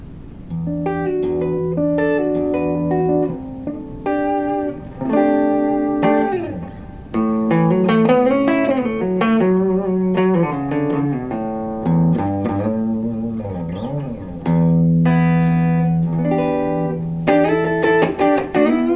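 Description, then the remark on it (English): A Stratocaster electric guitar plays clean through an amp, with sustained single notes, chords and a few string bends in a steady, fairly loud melodic passage and no voices. “But, but it's just it's so smooth, and as you can hear, there's you know, there's really beautiful clarity through this amp, nice warmth, and um.”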